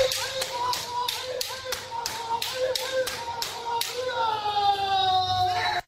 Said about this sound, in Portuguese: Calma, não se assuste com esses gritos. Eles fazem parte da arte marcial japonesa Kendo, que está presente na exposição do A Caminho da Virtude na Casa de Cultura Japan House, na Avenida Paulista, em São Paulo.